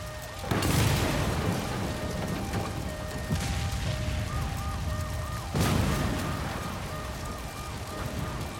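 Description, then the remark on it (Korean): Repeated heavy booms erupt one after another as leaked gas sets off a chain of explosions in a building, each a broad, loud blast with a rumbling tail, over a continuous low roar and faint tonal warbling in the background. “하지만 누출된 가스는 계속해서 연쇄 폭발을 일으켰고 이미 58층에 있던 레스토랑 주방을 통째로 집어삼킨 뒤였다.”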